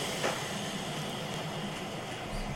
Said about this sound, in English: I, I just love taking you in and out on this train. It's one of my favorite things. because I just love that train ride.